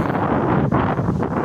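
Heavy wind buffeting a microphone while walking along an embankment by the water, a loud continuous low rumble with gusty fluctuations and brief dips, no voices present.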